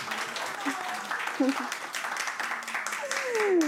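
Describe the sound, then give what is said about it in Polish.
A crowd applauds photographers steadily, a dense crackle of many clapping hands that swells slightly toward the end, with a few voices and a rising whoop mixed into the noise. “W związku z tym oklaski dla fotografów to w tamtą stronę.”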